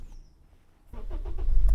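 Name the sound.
car engine starting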